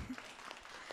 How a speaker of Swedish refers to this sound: Man sa en applåd till mig, tack så mycket.